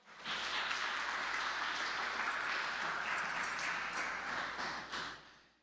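Audience applause, a dense and steady burst of many hands clapping together, sustained for about five seconds at an even level before tapering off at the end. No voices are heard.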